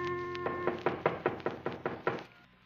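A rapid, steady series of about nine knocks on a wooden cabin door at about 11 o'clock at night, fairly loud, each a short hollow rap, with no voices.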